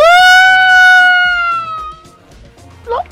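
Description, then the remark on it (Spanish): A person imitates a coyote howl with one long, loud, held note that slowly sags in pitch and fades, then ends with a brief, higher yip. “Ok, superen ese aullido, ladrido de coyote y participen.”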